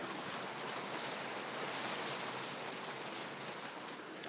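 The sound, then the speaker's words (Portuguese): Heavy rain drums steadily on the roof tiles of a house, a dense, unbroken, loud hiss of downpour with no pauses or voices. “Nossa, tá chovendo muito, vocês estão ouvindo?”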